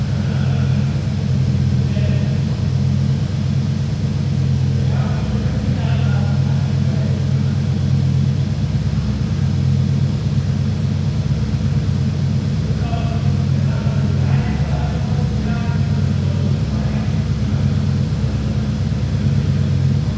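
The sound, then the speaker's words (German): A 5-litre V8 car engine runs steadily for the whole stretch, a deep, loud, throbbing rumble, with a few faint mid-range noises drifting over it. “der Motor, muss man sagen, ist ja ein 5 Liter V8”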